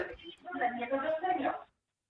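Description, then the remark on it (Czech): A television plays over an open phone line during a radio call-in, with no caller speaking: muffled, narrow-band voices from the set come through steadily for under two seconds, then the line falls silent. “Tak slyšíme zatím jenom televizi, bohužel nikdo se neozývá, tak budeme pokračovat.”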